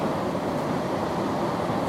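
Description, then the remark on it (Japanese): A steady, continuous rumble of a Metro Star train running on rails, a dense even roar with no breaks or distinct clacks, fairly loud, with no voices. “大変ご迷惑をおかけしました本列車は切り離し作業のため15秒遅れで次のタイタン11丁目駅に到着の予定です”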